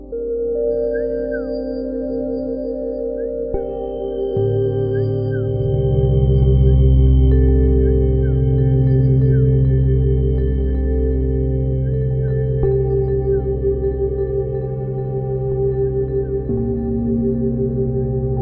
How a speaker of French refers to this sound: mais je trouve qu'il y a quelque chose de réconfortant dans le fait de s'envelopper de sons. Et ces cocons de sons que j'aime tant, eh bien c'est la base de la musique ambiante et du drone,